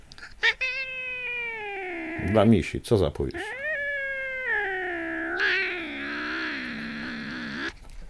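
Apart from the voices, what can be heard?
cat meowing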